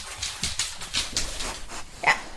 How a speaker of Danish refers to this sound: Han spiser kiks, mens hundene omhyggeligt samler de krummer op, han taber.